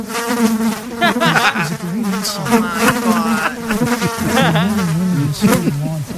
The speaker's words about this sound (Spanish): Hablando de la mosca, Choco, este, yo empecé a ver el debate y que veo, cuando vi la mosca ya no la vi a gusto.